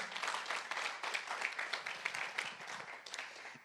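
An audience applauds steadily, dense overlapping claps forming a continuous crackling wash of moderate loudness that holds for several seconds without pause.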